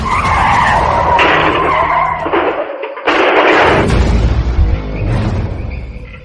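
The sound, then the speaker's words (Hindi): A car's tires screech in a long, loud skid, broken by a brief gap before a second burst of squealing and a heavy low-end boom as the car crashes head-on into a tree, its windshield shattering, intense, with no voices. “जब गाड़ी का बॉनेट अपने आप अचानक खुल गया और सामने का शीशा चकनाचूर होकर ऐसा बिखरा गाड़ी सीधे सामने पेड़ से जा टकराई”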